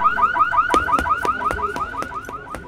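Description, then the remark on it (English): An electronic security alarm blares, a fast repeating rising whoop punctuated by sharp rhythmic clicks, loud and steady with no voices. “It's too risky to hit a house with an alarm,”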